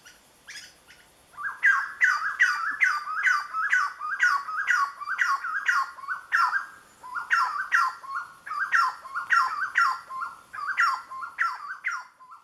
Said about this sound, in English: Well, in parts of Colombia where that species lives, people call it aguacero vienteado, which I believe is Spanish for windy rainstorm. This refers to the chestnut woodquail's call.